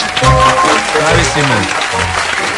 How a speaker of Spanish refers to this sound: Bueno, ella va a ser odontóloga. Un aplauso.